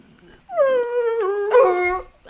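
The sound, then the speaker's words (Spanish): A person mimics a sad seal cry: one long, drawn-out wail that dips and wavers in pitch, fairly loud, with a short catch partway through, sounding somewhat like a howling dog. “es, una foca, eso.”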